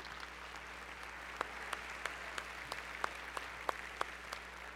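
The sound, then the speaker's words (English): Light, scattered audience applause: a handful of sharp, separate claps at an irregular pace over a quiet steady hum, fairly faint throughout with no voices. “Yeah, let's clap again.”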